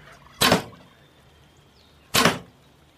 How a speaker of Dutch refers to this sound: En daar vloog de pijl.